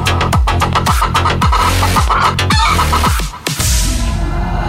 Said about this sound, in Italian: Nel frattempo, i ragazzi della banda ne approfittano per sculacciare la gallina in studio.